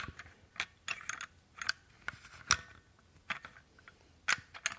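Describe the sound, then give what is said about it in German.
A key works a room door lock, turning the bolt twice with a series of sharp metallic clicks and clacks, fairly quiet, with no one speaking. “Dann gibt es als nächstes da drin den Riegel, der Riegel wird betätigt durch diesen Schlüssel, der hat dann zwei Touren.”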